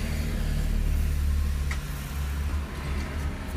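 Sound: inside a parked car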